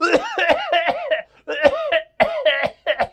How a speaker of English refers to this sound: Hey, can you tell me if this cough sounds weird?